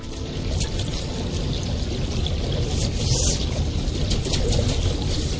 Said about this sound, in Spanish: Un especial al que queremos cruzar dejando que suene el fluir del agua, el fluir de la vida y la voz de un hombre que quiso contar su historia, la historia del hechizo de un río de Montana que marcó su existencia.